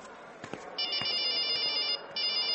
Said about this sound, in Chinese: 走到一半，电话响了。